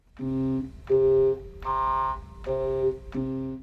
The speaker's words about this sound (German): Er schaltet beides zu einem elektrischen Resonanzkreis zusammen. Auf den lässt er dann die sogenannte Sägezahnschwingung des Glimmlampengenerators los.